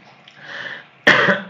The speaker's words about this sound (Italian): scusate, ho un po' di tosse,